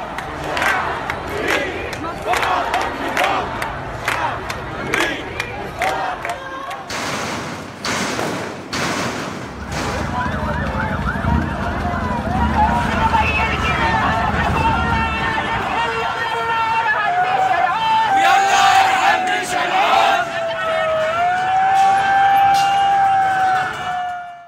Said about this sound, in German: Lass uns hier vielleicht einfach nochmal hören, wie sich das im Moment anhört, was du beschrieben hast auf den Straßen. Die Proteste, die Wut, die aus der Verzweiflung geworden ist, die Demonstrationen. Wir hören uns das mal kurz an.